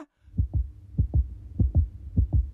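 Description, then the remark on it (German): A mother's muffled, low heartbeat as heard from inside the womb thumps in steady lub-dub pairs, about three double beats over a soft rumbling background, with no voices. “Da hört man mich schon im Mutterleib, als kleines Baby, als Herzschlag der Mutter.”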